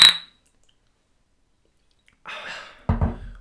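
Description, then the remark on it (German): A single bright clink of glasses in a toast rings out at the start and fades quickly, followed by a quiet pause, then soft rustling noises and a dull knock. “Prost.”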